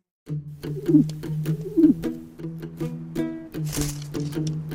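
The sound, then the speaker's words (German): Pigeons coo in a steady, throaty stream of soft rolling calls, with a brief rustle partway through like wings shifting. No one speaks. “Tauben fliegen nur nach Hause”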